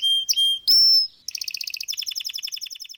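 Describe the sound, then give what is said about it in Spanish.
Several birds sing at once in La Romera Nature Reserve in Sabaneta, with sustained clear whistles giving way to rapid, rhythmic trills and chirps that overlap closely and loudly, with no voices present. “en el municipio de Sabaneta, el turismo social permite que los oídos puedan escuchar uno de los más maravillosos conciertos polifónicos interpretados por la naturaleza.”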